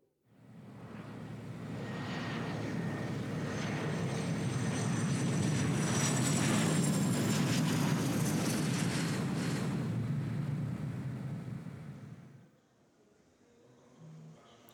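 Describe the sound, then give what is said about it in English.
A loud, steady aircraft roar at an airport fades in, holding a deep rumble with a thin whine gliding downward for about eleven seconds, then cuts off abruptly into faint quiet. No one speaks. “So yeah, we got to the airport and we are checking in, I guess.”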